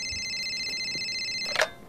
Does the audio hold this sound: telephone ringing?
yes